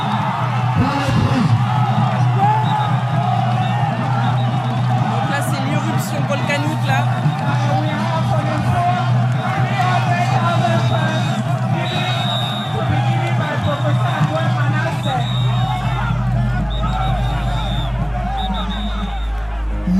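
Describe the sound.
Dense festival crowd hubbub, a constant loud babble of many voices with occasional shouts and whoops, and a low steady rumble growing stronger near the end.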